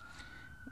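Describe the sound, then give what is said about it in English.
A faint siren holds a steady high wailing tone throughout the short moment, sitting low in the background with no one speaking. “Excuse the sirens in the background, I'm recording in a different location today.”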